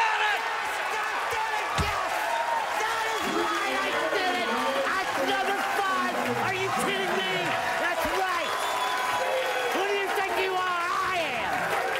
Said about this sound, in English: Pete Weber has retired after 41 years of professional bowling. So, a little round of applause to Pete Weber